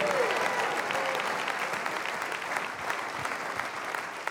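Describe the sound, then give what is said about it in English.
A large audience at a church service in South Florida claps steadily in a dense, continuous wash of applause, with scattered cheers and shouts of praise to God rising above it, holding loud and even throughout. “If you can testify to that in South Florida tonight, clap your hands one more time and give God a mighty shout of praise.”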